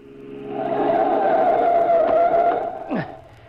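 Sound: car swerving and skidding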